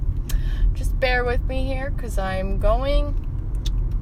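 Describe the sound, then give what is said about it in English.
A car engine hums steadily in the background, a constant low rumble underneath a person talking throughout. “Also, you can probably hear my car in the background.”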